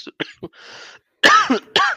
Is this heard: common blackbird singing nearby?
no